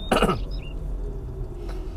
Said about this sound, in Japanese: 相変わらず咳払いというとこですね